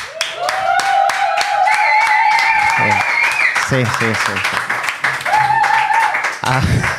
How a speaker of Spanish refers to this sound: Así que el primer aplauso es para vosotros.